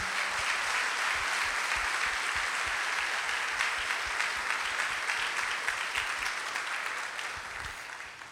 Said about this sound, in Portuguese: E eu, eu agradeço muito a Deus. Uma salva de palmas a essa grande equipe.